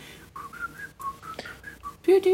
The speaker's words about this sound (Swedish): Eller den där de visslar i Snövit.